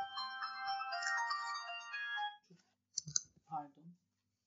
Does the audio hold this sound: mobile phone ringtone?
yes